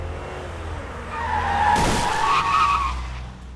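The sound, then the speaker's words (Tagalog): A car engine rumbles as the car approaches a person crossing to the other side of the road, tires letting out a long, loud, wavering screech of skidding, with a sharp burst of impact-like noise in the middle before the squeal fades. “Kaya hindi ko na malayang may paparating na palang sasakyan nung patawid na ako sa kabilang side ng kalsada.”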